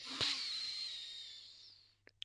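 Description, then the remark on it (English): A single long, deep inhale during a breathing exercise, a soft, airy hiss that holds for about two seconds and slowly fades, followed by a couple of faint clicks. Quiet, with no talking. “But that's okay, just come back to the breathing exercises. Breathe in”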